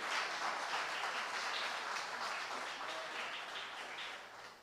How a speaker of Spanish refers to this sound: Denle una ofrenda de palmas al rey.